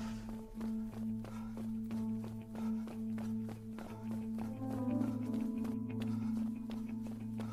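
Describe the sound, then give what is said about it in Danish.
Quick, evenly spaced footsteps of a group of people pound along at a running pace as they run out of the World Wildlife Fund offices empty-handed, steady, over a continuous low droning hum. No one speaks. “Og der løber gravergruppen så på vej ud fra Verdensnaturfonden med tomme hænder og et stort falsk grin malet på vores ansigt.”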